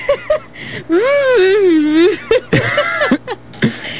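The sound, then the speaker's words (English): A person imitates a strained, effortful grunt, like tugging hard in a tug-of-war: a drawn-out wavering groan flanked by short clipped vocal bursts. “…'s making noise like the one I make when I'm trying to pull a rag from my dog”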